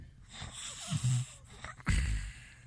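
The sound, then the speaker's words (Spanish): Heavy, congested nasal breathing from a person with a stuffed nose, right up against a microphone, with two loud, rough inhale-exhale gusts that thump with low breath pops over a steady airy hiss. “Porque tengo la nariz tupida.”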